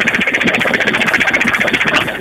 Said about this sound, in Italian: È l'autobus che sta rientrando in deposito con finito, quindi è poco.